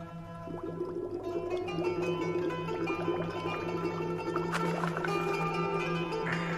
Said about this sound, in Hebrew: בקטע הזה משתתפים גם נגנים נוספים, חוץ מחברי הלהקה. כל מיני חבר'ה שמנגנים במקטרות ובנרגילות, עושים קולות של אה, בועות בתוך מים.